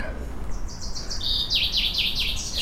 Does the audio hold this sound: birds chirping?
yes